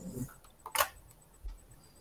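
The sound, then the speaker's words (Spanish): A few quiet, scattered computer keyboard key clicks, with one brighter cluster of taps in the middle, heard faintly over a low background hum with no talking. “Ahora sí escucho tu teclado.”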